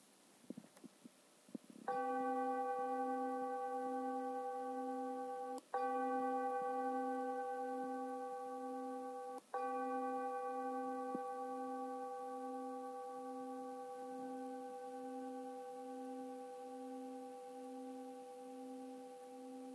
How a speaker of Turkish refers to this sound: Zilin titreşimi tamamen bittiğinde gözlerini açabilirsin.